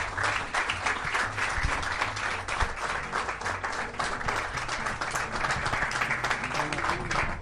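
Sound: audience applause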